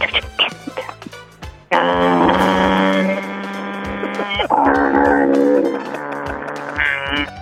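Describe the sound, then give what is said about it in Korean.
A coffee machine runs: a few clicks and knocks, then a loud, buzzing mechanical drone that holds for several seconds, pauses briefly, and resumes for another long stretch. “자, 여러분께 내드렸던 예, 주말 퀴즈의 정답은 바로 커피 머신이었습니다.”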